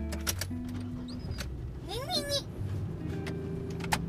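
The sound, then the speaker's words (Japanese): A brief rising, whining car engine-start sound swells midway through, surrounded by steady background hum while children chatter and talk over it, as they set off by car for the sea at about 9 p.m. “今から海に行きますゴーゴーイエイイエイエンジンスタートはい”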